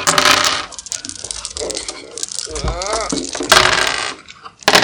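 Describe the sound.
Three dice clatter and rattle across a hard surface in bursts of bright clicking, rolled for an awareness check in a game, with a brief voice murmuring in the middle before another loud rattle.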